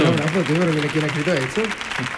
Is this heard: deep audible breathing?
no